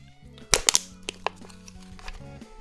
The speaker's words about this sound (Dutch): Ik ga het blikje kraken. Dat is het mooiste van de aflevering.